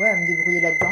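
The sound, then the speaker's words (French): A phone alarm, set as a reminder to take a pill, rings as a steady, high electronic tone that holds unbroken under someone talking. “Pardon, ça c'est mon alarme.”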